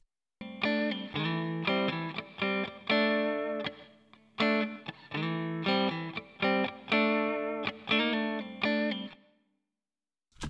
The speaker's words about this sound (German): Large Hall Chamber, okay, der klingt vielleicht noch ein bisschen kleiner.